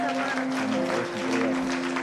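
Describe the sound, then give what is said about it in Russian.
A church audience applauds people who have come forward to the front, with dense, steady clapping that fills the whole two seconds, over a sustained low musical tone. “Давайте дадим еще аплодисменты.”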